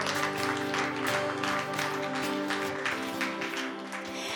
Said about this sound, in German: Schau mal, dein Applaus vorneweg. Applaus